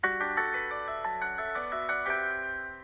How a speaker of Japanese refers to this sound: この言うなんか増えてるなんか効果音が増えてるねちょっと押してみますちょっと待って、ピアノ